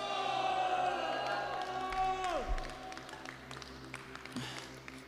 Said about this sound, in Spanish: si vas a aplaudir, apláudele fuerte a Jesús